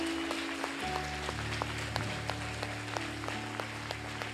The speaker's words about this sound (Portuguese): Se você quer ser crente que invoca a glória de Deus, levante a esquerda também. Aplaude com essas duas mãos a Deus. Une elas. Une elas.